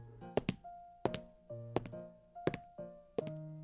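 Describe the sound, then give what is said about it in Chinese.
Slow, heavy footsteps thud at a steady pace, about one every seven-tenths of a second, with a low sustained musical tone droning underneath. No one speaks. “刚刚有人在叹气，现在又有脚步声。”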